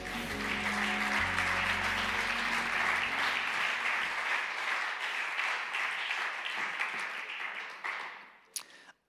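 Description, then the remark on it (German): Sustained audience applause for Abraham at the end of a retold Bible story, a dense wash of many hands clapping that stays steady for about eight seconds before quickly dying away, with a few last scattered claps at the end. “Geben wir Abraham einen fetten Applaus.”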